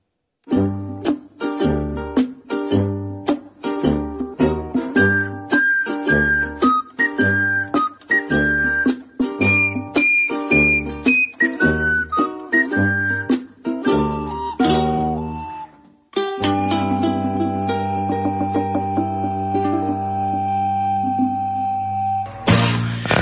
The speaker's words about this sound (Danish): Det var en radiojingle, der ville noget. Det, det, det kunne man lave dengang, ikke?